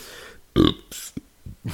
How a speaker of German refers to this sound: Von dem muss ich jetzt auch fairer, fairerweise sagen, ich kriege jetzt schon Aufstoßen äh, von der Maracuja.